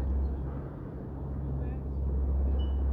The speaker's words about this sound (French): Et alors comme vous l'entendez, il y a le bruit des vagues autour de moi. Ces vagues et cette nature, ces sons, ces cycles répétitifs,